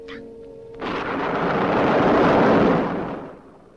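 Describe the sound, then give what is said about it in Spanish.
A loud, broad rumble of thunder in a storm swells after a brief quiet tonal sound, builds to a roaring peak, then slowly rolls away and fades out. “Ahora vendrá el trueno.”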